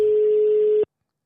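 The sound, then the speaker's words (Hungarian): A single steady telephone ringback tone of an outgoing call, the third ring, a clear mid-pitched electronic beep lasting under a second before cutting off into silence. No voices are present. “Hiszen benne van, és ez már a harmadik kicsengés, tehát...”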